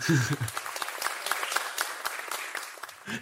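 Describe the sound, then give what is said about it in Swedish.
Sparse, thin applause sound effect from a small group, a dry scattering of claps with little energy following the announcement of the midfielder of the year award, briefly mixed with a voice at the start. “Det är jävligt torra applåder de får här.”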